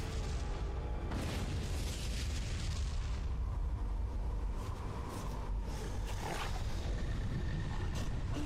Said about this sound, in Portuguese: Esse barulho de tigre. Nossa, leão.